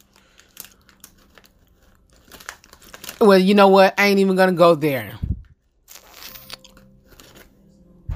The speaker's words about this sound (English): I'm hungry. I, these chips is not satisfying me enough.